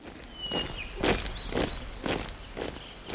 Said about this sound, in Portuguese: Durante um desses treinamentos, Leonardo, o major e os soldados marcham pela rua.